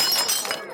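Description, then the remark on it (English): A glass candy bowl, broken while trying to decorate a cake, shatters: a sharp bright crash with ringing, tinkling fragments that fade quickly within a second. No one speaks. “she'll never know it's a replacement or that you and your cousin broke it trying to decorate a cake”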